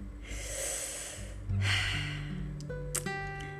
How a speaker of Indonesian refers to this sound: jadi bentar kok gue jadi batuk